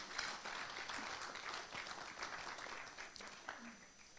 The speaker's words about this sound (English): We honor you, mothers. It's good to have you, mothers. Clap for the mothers once again.